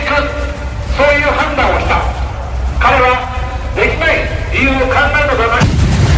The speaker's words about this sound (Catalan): És el moment en què un exmilitar a l'atur assassinava a trets el primer ministre japonès Shinzo Abe durant un acte electoral.